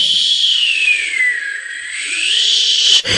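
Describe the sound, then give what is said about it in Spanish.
A voice imitates the wind whistling during a squall with one long, breathy, high whistle that slides gradually downward in pitch, then climbs back up over about three seconds before cutting off abruptly. “Y el viento chiflaba. Oiga cómo chifla le hacía.”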